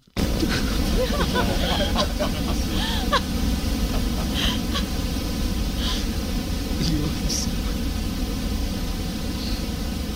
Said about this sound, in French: Alors, par exemple, j'ai créé pour vous en deux clics un bruit brun. C'est un bruit qui ressemble un peu à des vagues. Il est plus grave que le bruit blanc et on l'utilise généralement pour endormir les bébés. Voici mon bruit brun.